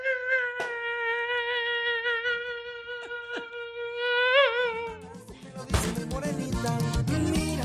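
A steady, high-pitched mosquito whine drones loud for about five seconds, wavering slightly in pitch, before a burst of louder, busier clattering noise takes over.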